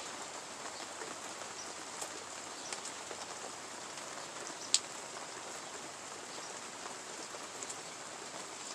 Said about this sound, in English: I just, a friend texted me and told me about the rain because I couldn't tell inside. I had my windows closed. I was like chilling upstairs, and I couldn't really tell when I when that it's raining because it's really soft.